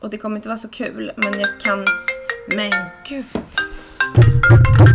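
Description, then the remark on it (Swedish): A woman's own mobile phone rings with a melodic series of bright electronic tones, fairly loud, playing on under her talking and laughing nervously. “Ja, det var min mobil helt enkelt.”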